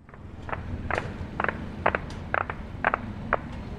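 Gunshots ring out in a steady series of about eight sharp pops, evenly spaced roughly half a second apart, over a constant low rumble like a vehicle interior, heard while on the road back to the city of Amarah at about 7:15, near the time of the sunset call to prayer.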